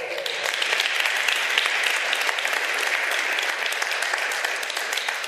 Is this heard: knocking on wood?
no